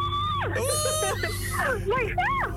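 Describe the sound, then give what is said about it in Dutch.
A person lets out high-pitched, excited shrieks and squeals, loud, with rising and falling pitch over a couple of seconds, over a steady low background hum. “Kijk, nu mag je gillen.”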